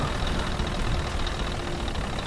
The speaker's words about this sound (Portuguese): Grandes tanques de guerra Carretas, caminhões blindados e fortemente armados, as tropas impiedosas do exército da ordem fechavam um grande cerco.